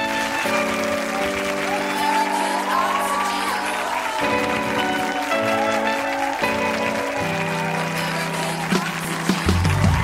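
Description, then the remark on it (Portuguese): A crowd applauds steadily for about ten seconds, with scattered whoops and cheers, welcoming Amanda Nunes, the first Brazilian UFC champion. Loud music with sustained chords plays underneath the clapping throughout. “Por favor, recebam com seu melhor aplauso a primeira brasileira a conquistar um cinturão do UFC, Amanda Nunes Aleoa.”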